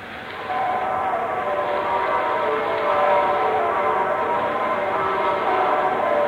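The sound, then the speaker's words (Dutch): A dense, continuous wash of many church bells ringing together in Cherbourg at midnight as Christmas Day begins, their overlapping tones blending into a steady clamor without letting up. “Alle klokken in Cherbourg zijn aan het luiden geslagen, kapitein.”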